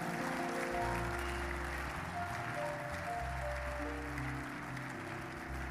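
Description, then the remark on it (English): A crowd claps loudly and steadily for several seconds, a dense wash of many hands together, with sustained low musical tones playing underneath throughout, as a preacher calls on anyone who can to clap their hands. “Anybody that can clap your hands, the power of God is upon you.”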